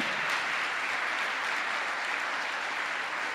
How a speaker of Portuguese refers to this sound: Você pode aplaudir ao Senhor Jesus. Amém.